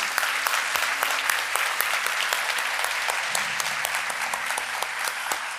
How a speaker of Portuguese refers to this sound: Quem quer dar uma salva de palmas para Jesus?